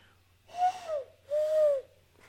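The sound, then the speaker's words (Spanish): A person imitates an owl-like bird's hoot with two drawn-out, breathy vocal calls, each about half a second long and held at a steady pitch, clear with a short pause between them. “Si hacen, parecen, como búhos. O sea, hacen una cosa así en plan...”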